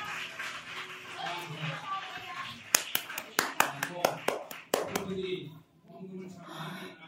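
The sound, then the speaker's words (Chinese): A church audience breaks into brief applause: about a dozen sharp, uneven claps over two seconds, rising out of a steady murmur of voices and talk that continues before and after. “我们儿以色列的儿弟还有今天光州，我们来为他们鼓掌一下。”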